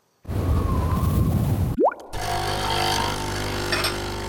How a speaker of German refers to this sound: So klingt es, wenn Ihnen George höchstpersönlich einen Kaffee zubereitet.